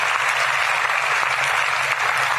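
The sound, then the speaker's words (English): A crowd of rocket-building staff at Marshall applauds steadily, a dense, continuous wash of clapping hands that stays loud and even throughout with no voices standing out. “Give yourselves a round of applause for persevering here at Marshall and developing the rockets of the future.”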